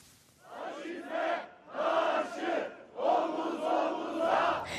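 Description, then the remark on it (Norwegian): Journalists protesting on Taksim Square in Istanbul in the evening chant slogans in unison against fascism and for free media, loud rhythmic bursts of many voices rising and falling in repeated phrases with brief pauses between them. “Det ropte journalistene som demonstrerte på Taksimplassen her i Istanbul i går kveld.”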